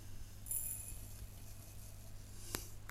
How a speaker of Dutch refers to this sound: Ik ga oploskoffie pakken. Ik heb eigenlijk een groter glas dan ik wil. Want mijn lievelingsglas staat hier voor koffie. Dat is heel klein. Hoor je de vogels en mijn koffie?